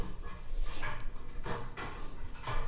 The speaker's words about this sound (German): hört ihr nochmal meinen Kater.